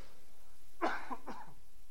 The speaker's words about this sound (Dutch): Sorry voor mijn hoesten, maar ik ben een beetje verkouden.